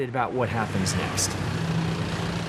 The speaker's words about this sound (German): Mit diesem Bus der Grünen Schule sind immer mittwochs ein paar Jugendliche der Oberstufe unterwegs. Sie sammeln in Restaurants Altöl ein.